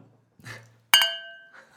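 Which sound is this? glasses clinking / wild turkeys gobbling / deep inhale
glasses clinking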